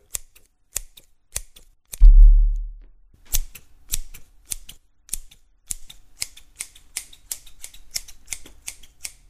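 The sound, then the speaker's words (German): Scissors cutting a person's hair snip in a steady run of crisp, sharp cuts that grow faster and denser as they go on, with one dull low thud near the start. “Die Schere schnitt in einer Tour.”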